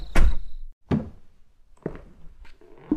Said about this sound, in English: The little red light flashed, turned to green, and Kyle slowly opened the door.